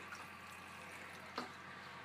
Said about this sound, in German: Und jetzt die Pflanzen von meiner Oma draußen. Die stehen jetzt in, hm, in der Sonne. Muss ich jetzt auch noch kurz gießen.